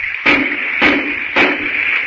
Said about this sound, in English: Hurry, knock on the door.